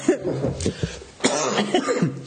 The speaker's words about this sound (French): c'est mon tour de tousser, pardon.